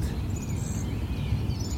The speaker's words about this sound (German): die Vögel tun hier. Gosh, was für ein Konzert. Und das auf einem Friedhof, hä? Mitten in der Stadt.